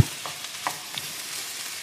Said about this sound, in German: So, die Currypaste schön in der Pfanne so verteilen, damit sie auch schön Hitze kriegt.